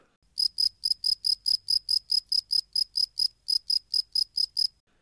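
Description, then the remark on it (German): Crickets chirp in a steady, even rhythm, about nineteen sharp high-pitched pulses in a row with no pauses or voices, clear against an otherwise quiet background. “Zirp, zirp.”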